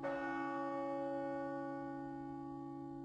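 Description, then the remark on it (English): A church bell in Dublin, Ireland tolls once for the Angelus prayer at noon, its deep, rich tone swelling and then hanging in a long, slowly fading hum with no voices present. “And at noon, the Angelus bell rang out.”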